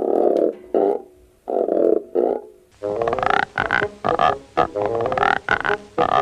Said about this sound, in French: Ou le croissement d'une grenouille en frottant une corde sur une autre.